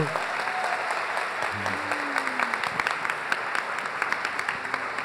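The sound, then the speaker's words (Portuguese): An audience at a church service claps steadily and loudly for several seconds after a child is presented and blessed, a dense, continuous patter of many hands with a few sharper individual claps standing out, and faint voices underneath. “Dê uma aplauso ao Senhor”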